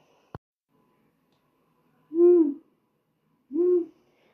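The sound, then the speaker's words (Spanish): Two deep, rounded owl hoots sound about a second and a half apart, each short and clear against a quiet background, preceded by a brief faint click. “Para finalizar, recordaremos todos los seres vivos que imaginamos mientras cerrábamos nuestros ojitos, ya los podemos abrir, como por ejemplo el búho.”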